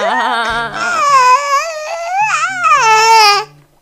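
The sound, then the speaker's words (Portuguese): A child screams and wails in a high, strained voice, with shrill pitch swoops running continuously for about three and a half seconds before cutting off. Faint low thumps sit underneath. “Porque a criança grita, né? Porque criança gosta de gritar, uma delícia.”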